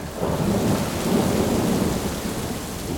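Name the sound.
thunderstorm with heavy rain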